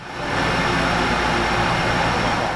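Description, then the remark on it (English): A steady, loud mechanical roar from irrigation systems and high-powered lights in cavernous indoor marijuana grow rooms in San Manuel: a constant machinery drone with a faint high-pitched electrical whine on top, unchanging throughout and with no voices. “Irrigation systems and high powered lights churn a constant background roar in the cavernous marijuana grow rooms.”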